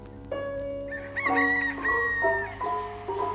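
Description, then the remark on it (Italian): A rooster crows once, loud, its long drawn-out call rising and then falling away over about three seconds, with no voices, in rural Suffolk, England. “Convivialità, feste e bevute fino a tardi e tutto ricomincia al canto del gallo.”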